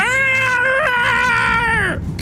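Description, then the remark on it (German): A person voices a long, shrill screech in imitation of a Quetzalcoatlus, a giant pterosaur, a strained wavering cry held for about two seconds before breaking off, loud. “gibt noch einen kurzen Schrei von sich.”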